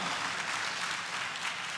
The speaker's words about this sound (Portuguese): Você pode aplaudir o Senhor de toda a tua vida? Vamos lá.